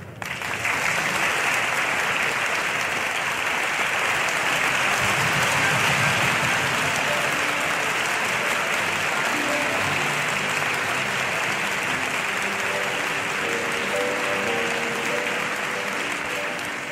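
An audience applauds steadily for about seventeen seconds for the accompanist Ru van Veen, a dense, even wash of clapping at full strength from start to finish, with faint murmurs and a few tonal traces beneath it.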